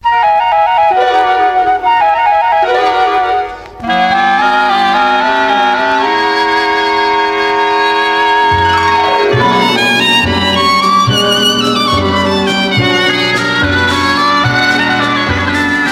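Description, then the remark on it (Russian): A gentle instrumental intro to a Soviet lullaby song that was released only on a flexi-disc record, with a bright, chiming melody; after a short pause, soft steady bass notes join in a slow rhythm. No singing yet. “Песня только на гибкой пластинке выходила. Давайте послушаем.”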